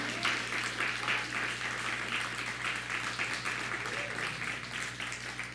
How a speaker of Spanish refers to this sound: Dele un fuerte aplauso al Eterno porque somos parte de esa fiesta. Somos parte de ser Bené Israel.